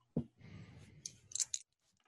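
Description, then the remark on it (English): Dice tumble across a hard tabletop, rolled for a persuade check in a tabletop game: a sharp knock, then a second or so of rattling and clattering, ending in a few distinct clicks as they settle. “Where are my dice? Oh, there are my dice.”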